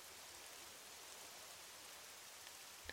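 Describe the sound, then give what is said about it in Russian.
Soft, steady rain patters on the wooden boards of a terrace by water, a continuous hiss of many small drops with an occasional slightly sharper tap, fairly quiet and even throughout, no voices. “Капли стучат по деревянным доскам, а также оставляют круги на воде.”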